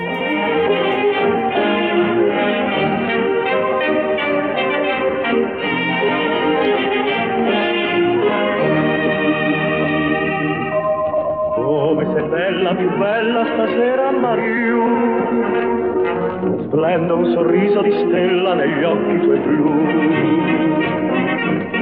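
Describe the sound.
A vintage recording of a male singer crooning a romantic Italian song over a lush orchestral backing, with warm, slightly band-limited sound typical of an old gramophone-era record.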